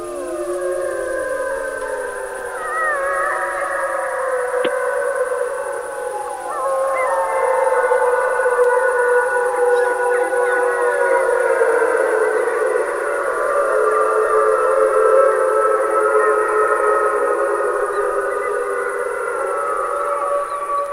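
A pack of wolves howls together around the recordist, an alpha wolf calling and the others answering, several long wavering voices overlapping and rising and falling in pitch, sustained and fairly loud throughout with no speech.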